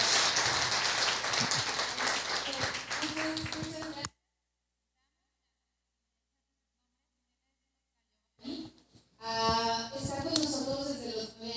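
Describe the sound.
A crowd claps steadily in a dense, crackling burst for several seconds, then cuts off into silence before voices pick up again.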